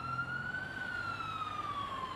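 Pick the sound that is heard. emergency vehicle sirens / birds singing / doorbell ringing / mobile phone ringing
emergency vehicle sirens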